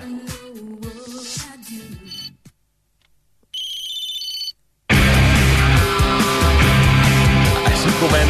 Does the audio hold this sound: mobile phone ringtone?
yes